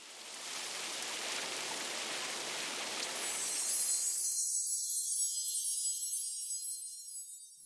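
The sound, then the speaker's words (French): Steady, dense hiss of falling rain with no voices, turning thinner and brighter partway through as the lower rumble drops away, continuing evenly to the end. “Si tu n'es pas capable de dormir à cause de pensées noires, des bruits de pluie, de cascades d'eau ou de la musique relaxante, te changera des idées.”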